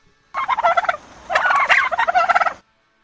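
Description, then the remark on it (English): A turkey gobbles in two loud, rapid rattling bursts with a short pause between them, clear with no one talking. “Well, I, have never heard a turkey do karaoke.”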